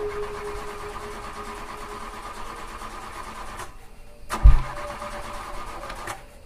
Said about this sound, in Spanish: Esta cosa no arranca. Oye, ¿qué le hiciste a mi carro? No, lo sé. De pronto dejó de moverse.